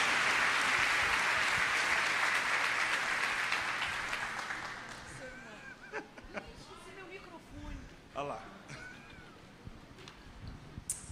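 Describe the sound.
Dense applause from a church audience welcoming a preacher, loud and steady for about four seconds, then thinning out as scattered voices and cheers rise over the last claps.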